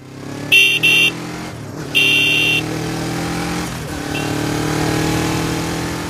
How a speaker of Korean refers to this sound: 18살 어느 일요일 배달 아르바이트를 하던 중에 문득 그때가 떠올랐다. 나는 부끄러워서 괜히 오토바이 경적을 울렸다.